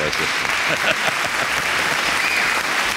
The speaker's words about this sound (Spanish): Eh, están, un poco, retardados los, aplausos.